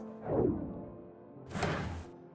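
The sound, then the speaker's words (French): A cupboard or drawer is opened: a soft wooden thunk, then a brief sliding rush of about half a second. The sounds are moderately loud, with no talking. “Il y a un placard là.”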